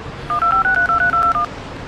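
A telephone number being dialed: a quick run of about seven short, steady touch-tone beeps in close succession, each at a slightly different pitch, heard alone over a faint background hiss.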